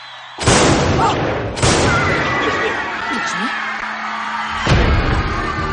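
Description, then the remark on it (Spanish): Loud, sharp gunshots, apparently fired at the president, crack out about a second apart. Another heavy bang follows a few seconds later, all over a steady murmur of a crowd. “Parece que han disparado al presidente. He oído dos disparos.”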